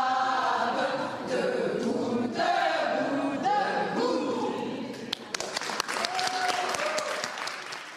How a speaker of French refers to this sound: Voilà, suivi des applaudissements